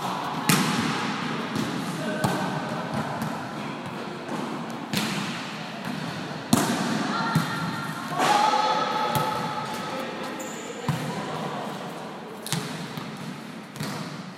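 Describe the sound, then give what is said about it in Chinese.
Girls' volleyball team of Fufeng Junior High School in Taoyuan, Taiwan, practicing after school in the school gymnasium at a little after five o'clock: sharp smacks and thuds of balls being hit and bouncing at irregular intervals, over a steady murmur of faint voices and the occasional sneaker squeak. “现在大概是五点多，那国中生他们其实已经下课了，不过呢，他们的排球队还是要留下来练习。 嗯，那就来听听他们练球的声音吧。”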